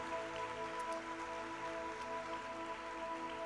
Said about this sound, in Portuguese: Dê uma salva de palmas o mais alto que você puder. Exalte ao nome de Jesus.